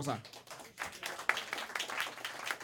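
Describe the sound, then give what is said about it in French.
A crowd breaks into scattered applause, a dense, crackling patter of many hands clapping at moderate volume, mixed with voices talking throughout; the audience claps to show who had listened to 70 earlier. “Par applaudissement, les gens qui ont écouté 70”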